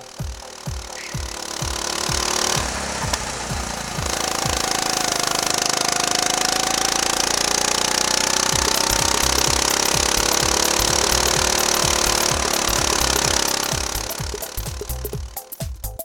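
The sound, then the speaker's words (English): A small racing go-kart engine roars right up close at the exhaust, recorded by a Shure SM58 Beta microphone attached near the exhaust and pointed at the rear tire, sputtering at idle, then revving hard and holding a loud, steady drone before easing back to choppy popping. “Here is how a Shure SM58 Beta sounds attached close to the exhaust and also pointed at the rear tire.”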